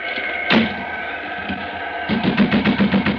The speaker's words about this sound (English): Open the door. You hear me? Now go on, open it! Now go on out!